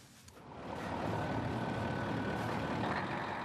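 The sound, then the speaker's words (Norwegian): A large bus engine idles with a steady, deep diesel rumble that swells after a brief quieter start and then holds level; no one speaks. It is a new patient express bus at a bus stop in Narvik, Norway, in the middle of the night, before a four-hour trip to the hospital in Tromsø. “Når du kommer inn på bussen, får du deg en stor overraskelse.”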